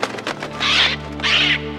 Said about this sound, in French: Tu as reconnu Oui, c'est un perroquet.